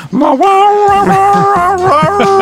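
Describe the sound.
A voice imitates a dog's howl, holding one long, loud, steady wavering note for a couple of seconds, with no talking alongside it.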